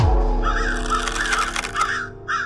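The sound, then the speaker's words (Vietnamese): A flock of crows caws in loud, overlapping harsh calls, repeated continuously over a steady low rumble, busy with many birds at once. “Họ dương cung hướng mũi tên về đàn quạ đang bay trên bầu trời Vẫn chưa biết đàn quạ này sẽ làm gì tiếp theo”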